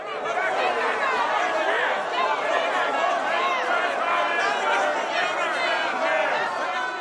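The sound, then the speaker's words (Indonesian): A noisy crowd of protesters clamors in a street in 18th-century England, shouting and unfurling posters, many overlapping voices at a steady, dense level throughout, with no single voice standing out. “Lalu tiba-tiba terdengar ada suara riuh dari sekelompok orang di jalanan.”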